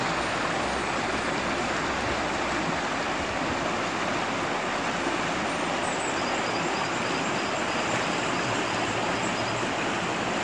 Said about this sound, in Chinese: 哎，这是河水的声音，这条河在 Puente Viejo。